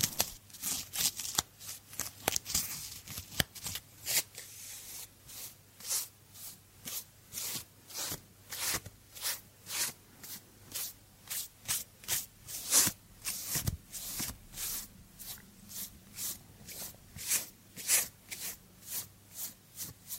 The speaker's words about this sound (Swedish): Så nu ska vi lyssna på lite sköna ljud på människor som viskar och skrapar. Och ska vi se om ni ryser där hemma. Alltså har ni hörlurar nu, lyssna ordentligt.